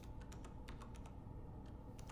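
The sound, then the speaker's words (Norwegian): Quiet, uneven tapping of keys on a PC keyboard by someone sitting at the computer at night, heard from a bedroom through a door left ajar, a string of soft clicks at irregular intervals, ending with one sharper, louder click. No voices. “Så hører jeg at det er noen som begynner å taste på tastaturet.”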